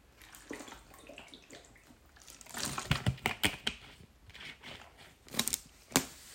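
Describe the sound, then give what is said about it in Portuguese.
Quiet sips of Naturis water, with soft sloshing, wet mouth clicks and a few sharper gulping sounds toward the end. No one speaks. “vou já dar um gol de água para iniciar aqui a situação.”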